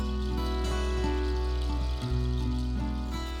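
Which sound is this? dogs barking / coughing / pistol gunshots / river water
river water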